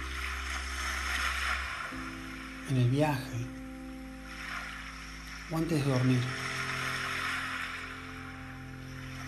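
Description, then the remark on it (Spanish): Soft, steady ocean surf played from an online video washes continuously in the background, a broad hiss swelling gently, while a person speaks briefly twice over it and a low hum runs underneath. “Escuchar el mar de fondo, como lo estamos haciendo ahora con un video de YouTube.”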